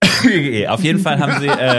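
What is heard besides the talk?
cough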